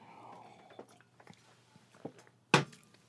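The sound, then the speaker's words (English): A quiet slurping sip of hot coffee, followed by a few soft mouth and swallowing sounds and then a sharp clunk as a mug is set down. “You know, uh, have a think about that while I sip my coffee.”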